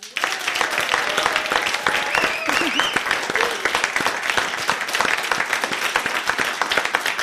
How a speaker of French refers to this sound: On commence l'année avec un peu d'humour et de tendresse et on en est absolument ravis. Merci d'applaudir ….